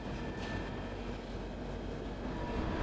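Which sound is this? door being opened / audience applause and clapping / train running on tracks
train running on tracks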